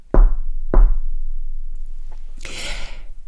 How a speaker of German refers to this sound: Doch plötzlich gefror sein Grinsen, als es an der Tür laut klopfte. Tok, tok.